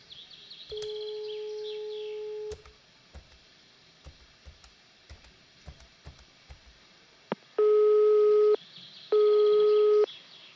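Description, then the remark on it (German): A steady telephone tone hums for a couple of seconds as someone calls a company, followed by a run of small dialing clicks, then two long, loud ringback tones separated by a short pause. No one speaks. “Wie wäre es, wenn wir diese Sündenbock GmbH einfach anriefen? Ach, jetzt gib schon das Telefon her.”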